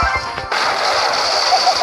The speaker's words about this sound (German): Dieser Schuss ist cool.